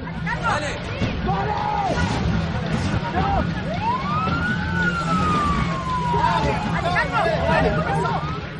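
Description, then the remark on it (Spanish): Several police sirens wail at once as the police cars leave, their rising and falling tones overlapping over a steady rumble of traffic and a murmur of crowd voices. “Todos los coches de policía se van.”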